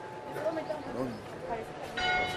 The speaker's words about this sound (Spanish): salgamos para oír las campanas. Ya arreglaron el reloj, ya no es tan tarde.